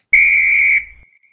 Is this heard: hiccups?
no